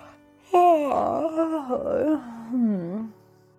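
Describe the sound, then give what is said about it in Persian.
A loud, drawn-out yawn voiced by a person, rising sharply then sagging through a few wavering, moan-like swells before trailing off, heard on its own. “مامان خرگوش خمیازه بلندی کشید و گفت”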